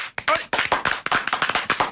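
Several people clap their hands in a quick, irregular burst of sharp, bright slaps that overlap into short applause, fairly loud and continuous for about two seconds.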